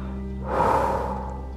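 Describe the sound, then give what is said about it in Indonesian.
A voice imitates heavy panting with one loud, breathy exhale, lasting under a second over a steady low background hum. “Hah, napasnya terengah-engah.”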